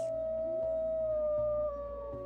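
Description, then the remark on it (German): A wolf howls in the Falkensteiner Forst in one long, unbroken note that holds steady and sinks slightly in pitch toward the end, loud and clear with no one talking over it. “Ähm, das war aber jetzt hm. ganz klar ein Wolfsgeheul.”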